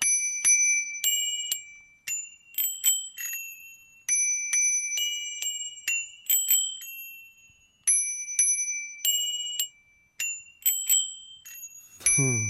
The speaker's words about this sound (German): Wenn man die Klingeln jetzt in der Hand hat und dann eine klingelt, dann die andere und dann wieder immer abwechselnd oder durcheinander, das klingt dann richtig lustig. Da kann man richtige Lieder damit machen.